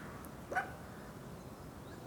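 A dog barks twice in the distance, a short yelp near the start and another at the very end, faint against a quiet background with no one talking.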